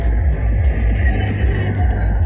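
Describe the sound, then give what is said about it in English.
Heavy, booming bass music thumps from a small car driven by a young man as it passes by in Sweden, loud and steady throughout, with a low rumbling throb and no voices. “That's a little car passing with music so loud you wonder about the damage it's causing to the young man's ears.”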